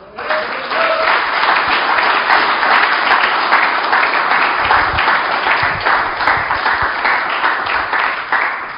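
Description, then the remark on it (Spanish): A church audience applauds steadily for nearly nine seconds during a sermon, clapping for God, a dense, loud wash of many hands clapping at once, with a few faint voices and cheers mixed in beneath. “Dele palmas al que vive.”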